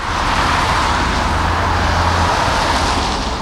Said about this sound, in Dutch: Wat je ziet is ja, de auto's raken links langs het werkvak rijden.